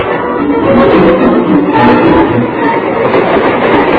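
A train rolls steadily along the rails, a loud, continuous rumbling roar with a faint rhythmic clatter running through it for the whole stretch, with no voices.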